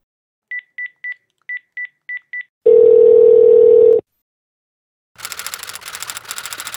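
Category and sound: signal or alarm, telephone dialing tones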